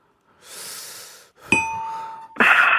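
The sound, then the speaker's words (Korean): A voice imitates a subway door-closing chime: a breathy hiss, then a sustained whistled tone with bright harmonics, ending in a louder buzzing burst, all alone. “지하철 문 닫을 때 들어볼게요.”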